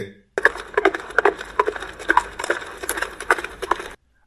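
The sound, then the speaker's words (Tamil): Horse hooves clop in a steady, brisk rhythm, a string of sharp hollow knocks on a hard surface, fairly close and distinct for a few seconds before stopping abruptly, as a horse ridden by a tall warrior approaches along a quiet riverbank. “அப்பொழுது அங்கே குதிரையின் காலடி ஓசை கேட்டது”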